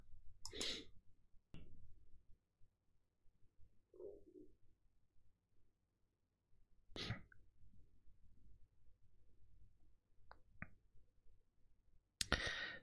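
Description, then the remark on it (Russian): Three sharp sneezes spaced several seconds apart over a low background hum, with a few faint clicks and a soft breathy sound in between; no one speaks. “Я чихнул, посмотрел, что у тебя идет стрим, зашел и ты чихаешь.”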